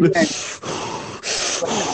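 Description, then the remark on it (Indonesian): Someone exhales cigarette smoke right against the microphone: a loud, airy rush of breath in three long pulses, each separated by a brief pause, with a faint trace of voice at the start. “lu ngisep rokoknya jangan deket mic”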